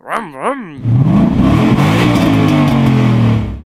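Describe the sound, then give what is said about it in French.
After a brief warbling tone, a 2.4-litre Formula 1 V8 engine, the type used from the 2006 season until 2014, screams loudly at high revs for about three seconds, its shrill pitch climbing and holding steady before cutting off abruptly. “Ce moteur mythique nous rappelle forcément sa douce mélodie”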